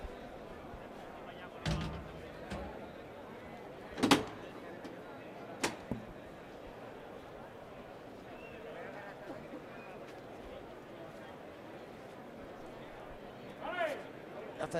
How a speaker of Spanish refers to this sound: Ya se retira la cuadrilla de areneros y va a salir el sexto toro para Roca Rey. Ahí va. Vamos a ver. Ahí va ahora Hermes a abrir la puerta de Toril.